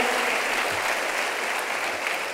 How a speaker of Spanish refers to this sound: Póngase de pie, denle un aplauso.